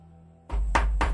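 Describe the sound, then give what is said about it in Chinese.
Knocking on the door of a run-down, isolated inn: three firm, evenly spaced thuds following a brief quiet moment, with a steady low rumble underneath. No one speaks. “小周迟疑的上前敲了敲门”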